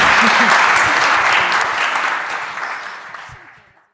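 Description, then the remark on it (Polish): An audience at a magazine premiere event at Studio Teatr Galeria claps loudly in a dense, steady burst that gradually thins and fades out over about four seconds, with no one speaking over it. “Oklaski się należą podwójne.”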